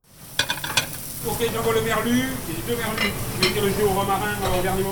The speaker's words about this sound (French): Les feux du piano sont poussés au taquet, les casseroles frémissent, chantent, cela faisait plus de deux mois qu'elles étaient remisées au placard, 80 jours très exactement.